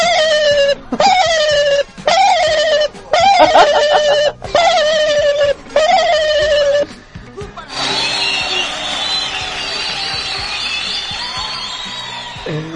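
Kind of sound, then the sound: bird, turkey gobbling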